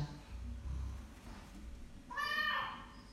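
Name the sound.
cat meowing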